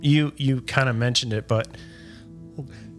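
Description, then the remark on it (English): A person talks briefly, then a sneeze bursts out, sharp and breathy, followed by a short faint exhale. “excuse me. Um, Bless you.”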